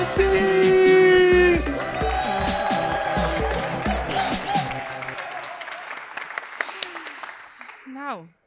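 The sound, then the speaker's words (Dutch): A crowd bursts into loud, sustained applause for the presenters, with cheers and whoops, music playing underneath, then the clapping thins and fades out over several seconds. “Nu gaan we klappen voor de presentators. Mag ik van jullie een non-knetters groot applaus”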